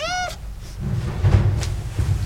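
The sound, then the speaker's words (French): A stray cat at a cat rescue shelter in Montreuil gives one short, high-pitched meow right at the start, followed by a couple of seconds of low rumbling and muffled clattering in the background. “Ce jour-là, il y avait une vingtaine de chats errants avec tous un problème différent.”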